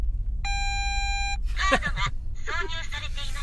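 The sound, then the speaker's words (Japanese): A car's warning beep sounds once, a steady, buzzy electronic tone lasting about a second, then people talk over a low, constant rumble. “急に車が騒ぎ始めたからね急に車の方からあの中止音が出ましたけど”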